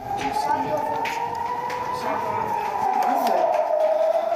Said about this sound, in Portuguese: Estamos na cidade de Ashdod, uma das mais atingidas no país de Israel, 40 minutos de Tel Aviv começou só a sirene, agora a gente correu para o prédio estamos aqui com as famílias. Agora é só esperar.